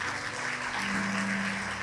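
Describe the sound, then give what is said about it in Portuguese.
An audience applauds the Lord in a dense, steady wash of clapping that holds at an even level throughout, with a low sustained tone humming faintly underneath and no one speaking. “Pode aplaudir o Senhor.”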